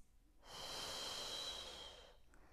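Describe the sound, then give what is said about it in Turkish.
One long, deep breath: a steady, airy rush that swells in, holds for over a second, then fades, with quiet around it and no talking. “Nefes al, ver. Al nefes.”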